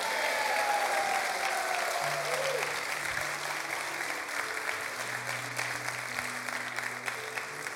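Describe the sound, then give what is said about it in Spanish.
An audience applauds loudly, a dense, steady wash of clapping that holds for several seconds, with a few low sustained tones, like an organ or keyboard, sounding underneath. “Y si lo crees, dale un aplauso fuerte.”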